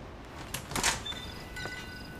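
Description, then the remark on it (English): A door opens with a couple of latch clicks and a brief scraping rattle, followed by a thin, high creak and a final soft knock, with no voices. “I go to open the door.”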